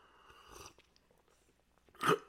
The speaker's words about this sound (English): before we do that, give me just a second to take a sip of my preferred beverage over here.